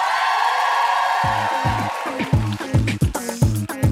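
An audience at a live show roars with sustained cheering and whoops, applauding to vote for a contestant; after about a second a steady, loud pounding rhythm joins in, like stomping or heavy clapping, continuing under the crowd noise.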